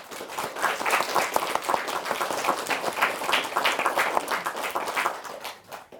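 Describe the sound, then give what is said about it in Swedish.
A crowd claps steadily for the third-place quiz finishers, Ytternas skola class 6B with 8 points, a dense patter of many hands with no pauses, holding a fairly even level before easing slightly at the very end. “Det gör här att vi har en tredjepristagare som är värd en applåd.”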